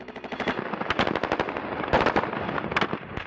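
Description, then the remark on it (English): Rapid bursts of gunfire crack repeatedly, sharp shots clustering in quick volleys with brief gaps, loud, with a dense background of echoing noise and no talking, as soldiers inside an army vehicle stopped near a pickup truck open fire in the border town of Nuevo Laredo, across the Rio Grande from Laredo, Texas. “The footage is grainy and a little shaky, but it clearly shows an army vehicle coming to a stop near a pickup truck. And then the soldiers inside begin to open fire.”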